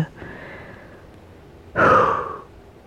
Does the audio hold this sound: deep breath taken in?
yes